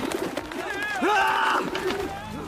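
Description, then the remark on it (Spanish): Doves cooing, several soft, rolling coos overlapping one another in a steady stream, with one call swelling louder midway before the flock settles back to a low murmur. “A los que vendían palomas les dijo: ¡Quiten esto de aquí!”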